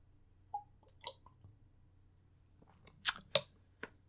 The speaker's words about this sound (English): I have to take a drink of water. I'm so frustrated. You ever have that happen to you? You just get so mad you're dehydrated? It's happened to me right now.